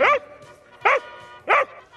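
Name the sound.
dog barking on command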